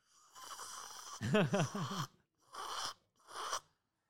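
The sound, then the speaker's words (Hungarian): A voice imitates loud coffee slurping as heard during coffee cupping: a drawn-out airy suck with a throaty, groaning middle, followed by two shorter hissing slurps separated by brief pauses. “Tudod, hogy hangzik egy ilyen kávés YouTube videó, ahol cuppingolnak?”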